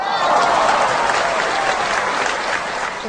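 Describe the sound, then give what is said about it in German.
A crowd claps steadily throughout, a dense, loud wash of applause that holds at an even level from start to finish. “Jetzt müsstet ihr noch so einen Applaus einspielen.”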